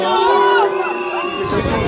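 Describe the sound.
A loud, dense crowd of protesters with several whistles blowing at once, shrill tones overlapping and sliding continuously over a steady roar of voices.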